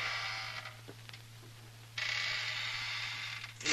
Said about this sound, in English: Will you stop squeaking the chair?